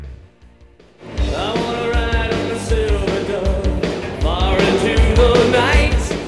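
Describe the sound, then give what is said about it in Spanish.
After a quiet first second, loud music kicks in with a steady thumping bass beat and a melodic singing voice riding over full, dense instrumentation until the end. “Eh, ahí escuchamos más música.”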